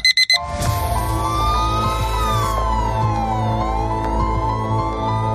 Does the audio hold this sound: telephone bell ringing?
no